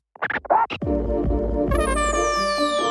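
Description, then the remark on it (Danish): A music beat, played in a studio and heard over headphones, kicks in with a few quick scratch-like bursts, then deep sliding bass and steady synth tones with a high descending sweep, loud, no voices. “Kan jeg få mit beat?”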